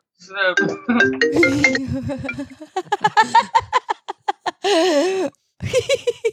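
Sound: telephone ringing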